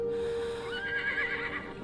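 animal, horse neighing

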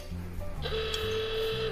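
signal or alarm, alarm going off

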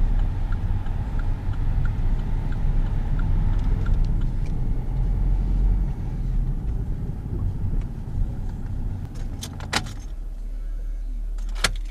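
vehicle, car being parked

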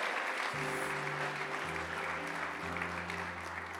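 crowd, audience applauding and shouting

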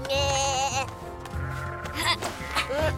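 animal, sheep bleating

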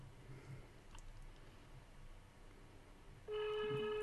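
signal or alarm, phone call ringing tone

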